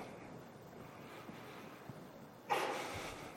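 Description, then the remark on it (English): A single sharp, loud sneeze bursts out near the end, after several seconds of steady, hissy background noise with no talking. “Bless you.”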